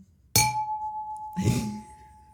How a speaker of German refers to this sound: Ich mache jetzt den Gong. Okay, mach den Gong.